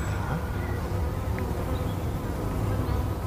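A male garden wool carder bee buzzes in flight, flying back and forth, a steady low drone that holds for the whole stretch without pause, moderately loud against faint outdoor background noise.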